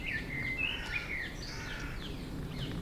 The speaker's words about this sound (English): Is that a robin or a blackbird? I get really confused between robins and blackbirds, but there's a beautiful bird. It sounds like it's directly above us. Oh, yeah, that's a blackbird. I can see it. Perched on that branch.